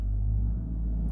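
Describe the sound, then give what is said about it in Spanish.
A low, steady engine rumble from a car passing in a parking lot, swelling slightly in the middle of the brief moment, with no voices. “Me excusan si oyen un carro detrás de mí, es que estoy grabando esto en mi hora de almuerzo y pues pasó un carro por ahí”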